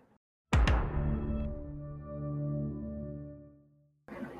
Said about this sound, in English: The Netflix bong